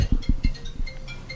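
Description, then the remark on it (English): A mobile phone rings with a quick run of bright, chiming electronic tones, repeating in a steady melodic pattern, accompanied by a few soft low thumps like the phone being handled. “Who's that? Hold on.”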